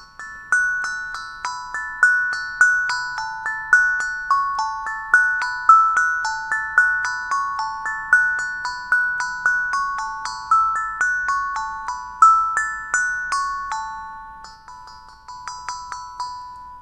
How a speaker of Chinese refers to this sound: 好啦，你现在听到的是这个迷你鼓的这个啊，这个厂商附赠给我的一个小的迷你鼓啊。